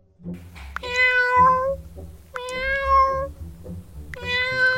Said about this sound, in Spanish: De hecho, creo que me pasa un poco porque ahora controlo tanto su comportamiento que incluso entiendo sus maullidos.